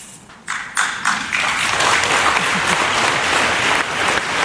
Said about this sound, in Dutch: Ja, die willen we even nog laten horen. Dat zwelt dan toch mooi aan, een beetje aarzelend. En dan wordt het een echt applaus.